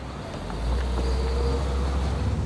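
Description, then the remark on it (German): Steady low engine rumble and road noise from inside a moving car driving to a former pizzeria by navigation directions, a dull continuous drone that swells slightly after a moment and holds level, with no voices. “Im Auto geben wir die Adresse der ehemaligen Pizzeria ein und folgen den Navigationsanweisungen.”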